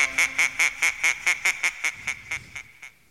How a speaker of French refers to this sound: Il fera coin coin, ce sera un canard.